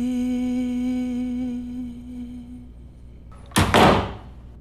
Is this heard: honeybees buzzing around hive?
no